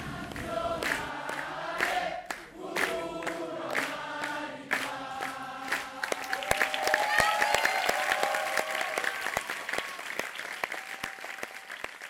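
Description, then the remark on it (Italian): A voice talks for a few seconds before a theatre audience breaks into steady, dense applause after a performance of Mistero Buffo, a loud crackle of many hands clapping that holds through to the end. “Dopo gli applausi, come sempre, discutevamo dello spettacolo con gli attori, i registi e i tecnici.”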